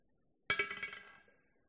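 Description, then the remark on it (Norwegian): A drinking glass taken from the kitchen of the Bore prayer house clinks as it is picked up and set down, a sharp bright ring followed by a short cluster of rattling taps that fade quickly. “Dette glasset det symboliserer deg du som er i Bore menighet.”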